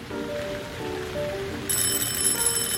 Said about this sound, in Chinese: 这个时候，下班的铃声响起。